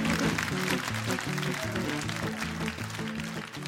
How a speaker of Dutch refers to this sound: round of applause.